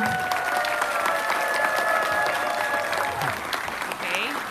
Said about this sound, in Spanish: Es un honor para mí estar presente esta noche y dar la bienvenida oficial a esta delegación que ha venido de El Salvador, comenzando con nuestra honorable embajadora de El Salvador en Estados Unidos, Milena Mayorga, para quien pido un gran aplauso.